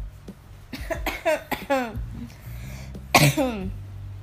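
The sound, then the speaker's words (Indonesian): A single sharp, loud cough bursts out near the end, following a few seconds of brief voiced vocal sounds and talking. “ya batuk.”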